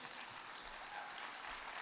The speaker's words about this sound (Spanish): Bishop, yo tengo el privilegio de hacerle un aplauso fuerte.